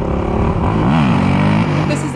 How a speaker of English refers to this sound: I mean, those scooters should not be allowed to do that uh, on our city streets. It's remarkably dangerous. They did a U-turn, their turnarounds very intimidating. It's very dangerous.